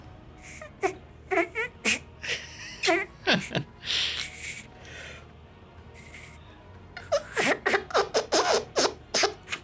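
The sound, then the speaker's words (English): A person imitates a fart with the mouth: a series of short, squeaky, sputtering mouth noises in two clusters of bursts separated by a quieter stretch, fairly loud, with no talking. “no, I can make a fart noise.”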